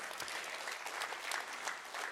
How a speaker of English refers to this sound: We'll get it ready in 2021, and it's coming. We can applaud that